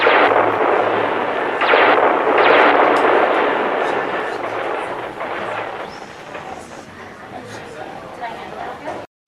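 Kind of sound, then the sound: impact, series of explosions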